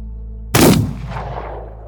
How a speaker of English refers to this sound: The second man lets out a strangled gasp, and the first man puts a bullet in his head.